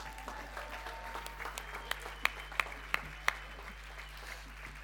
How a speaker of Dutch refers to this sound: want er zijn drie mensen, drie dames die zich ook willen laten dopen. En ik vind het wel mooi jullie heel even naar voren te vragen. Even een applaus voor jullie.